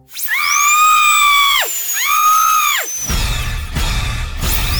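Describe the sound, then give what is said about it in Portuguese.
A dentist's drill whines loudly in two high-pitched bursts, each rising then sliding down in pitch, followed by a rougher, buzzing grind with no voices. “Arranca o dente dela sem anestesia, vai.”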